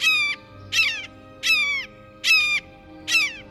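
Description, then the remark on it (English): A blue jay mimics a red-shouldered hawk, giving five loud, harsh, downslurred screams at a steady rhythm with short pauses between them, with no one talking. “Though they don't have the same reputation for mimicry as mockingbirds and thrashers, blue jays have an unnerving habit of impersonating raptors, especially red shouldered hawks.”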